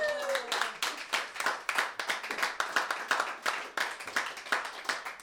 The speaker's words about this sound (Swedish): Jag tycker vi ska ge honom en applåd!